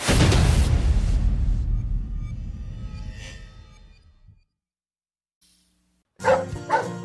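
A dog named Annie barks twice in quick succession, loud, after a long fading rush of noise and a moment of silence.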